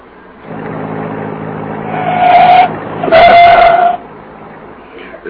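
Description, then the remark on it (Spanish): The engine of a private car with Coahuila license plates rumbles, then two sharp squeals of brakes or tires ring out as it slows and pulls over after police wave it down, with the engine idling quietly afterward. “Aquí le hacemos señas de que se pare. Parece que trae placas de Coahuila.”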